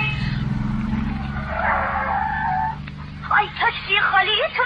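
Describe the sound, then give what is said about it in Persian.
A taxi's engine rumbles low, then tires screech for about a second as it brakes hard in the street. Voices follow right after over the idling motor. “خب، خیلی متشکرم که ترمز کردی بابا کن له میشد”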